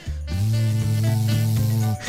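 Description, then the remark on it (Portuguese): A dishwasher runs with a steady mechanical hum and a rushing, spraying wash of water inside it, running continuously and evenly for about two seconds before cutting off. “Imagem o som da, da, minha máquina de lavar, lavar louça costuma ser suave e relaxante.”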